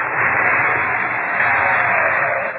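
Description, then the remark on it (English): A steady, loud rush of howling wind fills the whole stretch, a dense hiss with a slight swell midway and no voices. “Wind. I hear nothing but the wind, Agatha.”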